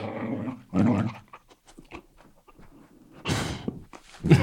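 A dog named Artur growls and grumbles in a few rough bursts, with short pauses and some shuffling noises between them. No one is talking.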